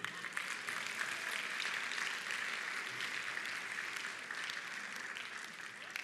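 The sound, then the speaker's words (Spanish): A crowd claps steadily and continuously in applause for the women, a dense wash of many hands filling the room for several seconds with no pauses or speech. “Es un aplauso para las mujeres, ¿no les parece?”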